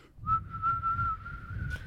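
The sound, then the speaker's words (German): A person whistles one long, steady note that drifts slightly upward in pitch, imitating a killer whale's blown call. It is fairly loud over a low breathy rumble, with no talking. “Die pusten da so ein bisschen drüber, so.”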